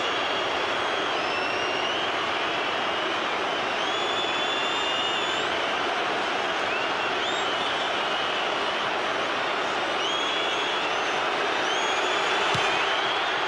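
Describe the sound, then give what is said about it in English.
A huge stadium crowd roars continuously as Queensland's goal kick goes through the posts to make it 18-16, a dense, loud wall of cheering with shrill whistles rising above it, sustained for the whole stretch without letting up. “you listen to the crowd and it hits this.”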